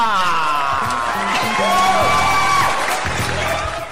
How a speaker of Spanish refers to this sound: Fuerte sonaron esos aplausos. Porque son para mí.